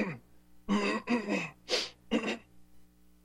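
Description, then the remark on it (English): A man clears his throat in a quick series of four rough, raspy bursts, one breathier than the rest, then quiet. “Why is he clearing his throat?”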